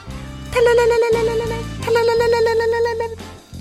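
A phone ringtone for an incoming call plays a bright, electronic melody in two repeating phrases, fairly loud, with a low accompaniment underneath and no one speaking.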